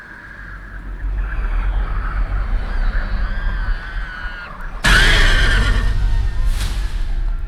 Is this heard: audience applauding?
no